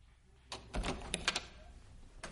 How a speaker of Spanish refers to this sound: Skyler abre la puerta.